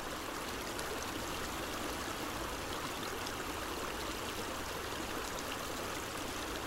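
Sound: flowing river water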